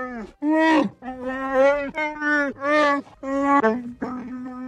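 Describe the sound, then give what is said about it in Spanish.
A loud creature growl made by combining animal recordings sounds off in about five long, warbling roars in quick succession, each rising and falling in pitch, with no talking. “Tenía grabaciones de animales que él las catalogaba, según él, por el estado de ánimo de cada animal.”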